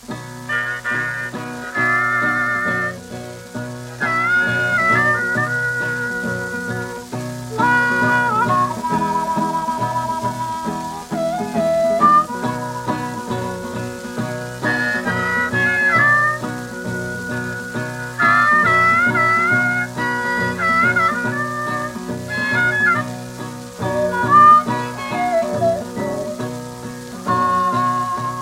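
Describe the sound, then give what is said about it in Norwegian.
An old blues record plays steadily throughout, its twangy melodic lines riding over a constant hiss and crackle of surface noise, fairly loud and continuous. “Vi skal høre en av hans mest kjente låter”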